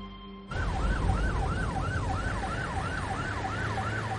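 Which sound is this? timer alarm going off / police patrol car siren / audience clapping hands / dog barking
police patrol car siren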